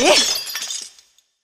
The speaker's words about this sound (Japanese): 夫人はわざとコーヒーカップを落とし人々の目を床に向けさせようとした